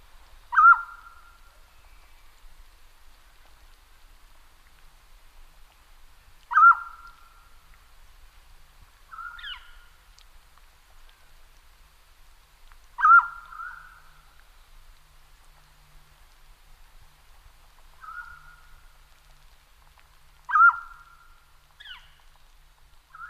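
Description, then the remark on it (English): A loud, clear mountain quail (Oreortyx pictus) call repeats about every six to seven seconds, each a sharp descending note with a brief upward flick, alone against a quiet background. “The mountain quail, Oreortyx pictus, is probably my favorite species in the entire family. I've heard it many more times than I've seen it.”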